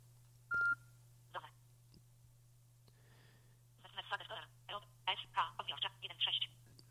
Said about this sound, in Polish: No i w tym momencie wiadomości zostały zapisane. Mm, usłyszeliśmy takie charakterystyczne piknięcie, co świadczy o tym, że operacja się zakończyła.